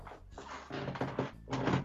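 An old wooden chair, about 40 years old and once belonging to the speaker's grandmother, creaks and groans in several uneven bursts as someone shifts their weight, fairly loud, with no talking.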